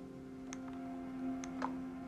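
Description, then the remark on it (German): Minecraft mining sound effects, with pickaxes breaking blocks: a few short, quiet ticking clicks spaced irregularly over a steady low background hum, with no one talking. “Jetzt kommen wieder die typischen Minecraft-Sounds.”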